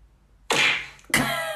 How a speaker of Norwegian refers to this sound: Vi bruker punch. Et slag i trynet på hvert.